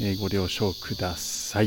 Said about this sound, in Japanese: えー、まだまだ秋が近づいているとはいええー、こちらはですね、えー、セミが鳴いていたりして、ちょっとうるさいかもしれないんですけども、外から撮っているということで、